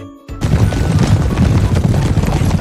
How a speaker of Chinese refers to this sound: 砰的一声，用大羊角撞了上去。没想到事与愿违，篱笆不仅没有倒。